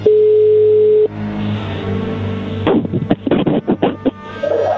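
telephone call being dialed

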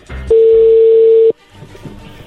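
telephone being dialed

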